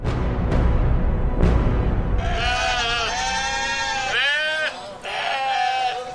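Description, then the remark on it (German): A little sheep on a dike by the sea bleats loudly, several long wavering bleats in quick succession, following a few seconds of rumbling, wind-like outdoor noise with a couple of sharp knocks. “Das kleine Schaf Rita lebt mit seinen Eltern auf dem Deich gleich am Meer.”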